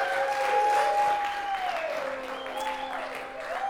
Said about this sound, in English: Cheer for her.